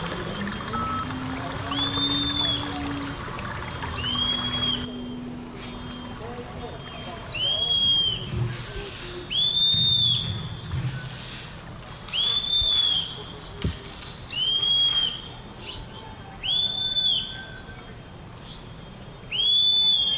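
A bird repeats short, high whistled phrases, about nine in a row, each separated by a brief pause, over a steady low rumbling hum of motors in a neighbourhood.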